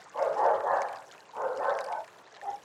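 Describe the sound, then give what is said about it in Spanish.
A pet dog barks three times, alerting that a bird has moved position: two long, rough, mid-pitched barks followed by a short, softer one. The barking is fairly loud, with no talking. “mi mascota, avisando de que hay un pájaro que se ha movido de posición.”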